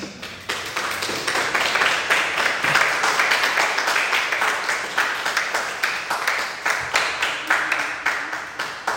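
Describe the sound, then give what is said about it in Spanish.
A crowd applauds God during a sermon, steady for several seconds, many hands clapping in a dense, bright wash with rhythmic pulses running through it, fairly loud and with no voices on top. “¿No das un aplauso a Dios?”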